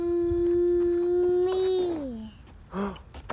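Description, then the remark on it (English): A dog lets out a long, steady howl that bends downward at the end, followed by a short second yelp, sounding almost like the spoken word "Mommy", fairly loud. “y'all heard that? He said, Mommy. Oh my goodness. He literally said, Mommy.”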